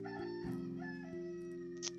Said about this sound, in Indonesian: ayam lagi